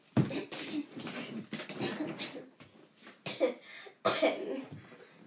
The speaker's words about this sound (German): Ich hatte gerade fast einen Hustenanfall.